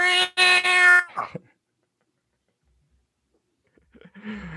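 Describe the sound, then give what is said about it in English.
A voice imitates a cat's growling rawr, loud, in a strained, harmonic burst that trails off, followed by silence and then the start of another voiced sound. “He's a cat. And he's like, Rawr!”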